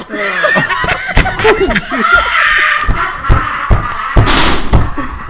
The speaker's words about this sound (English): She just ran out the door. she ran into the door. She ran into the door.